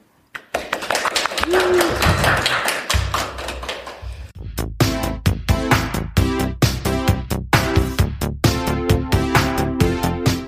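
A few seconds of steady, dense clapping from a small live audience at Ingeniørenes hus, which fades as a rhythmic, tuneful piece of music begins and carries on to the end.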